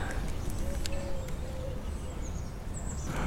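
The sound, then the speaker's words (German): Thin, high bird chirps and short whistles, the nearest of the surrounding sounds, come through over a steady outdoor hiss, a few quick calls scattered across the moment rather than one continuous song. “am nächsten sind die Vögel.”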